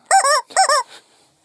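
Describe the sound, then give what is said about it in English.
Two loud, nasal squawks from a squeezed toy chicken, each a honking burst in quick succession, followed by a faint wheezy trailing breath of air, with no talking. “Remember, if there's a big call that we don't like, we've got the hot take chicken with us. Say something, hot take chicken.”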